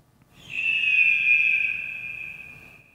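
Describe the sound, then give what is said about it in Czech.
A single drawn-out, piercing eagle screech from a video game, heard when the player character leaps (the Leap of Fate jump), rising sharply and then slowly trailing off over a couple of seconds, heard on its own. “není to, když skáčeš ten orel? Jo, jo, jo je to Eagle, Leap of Fate.”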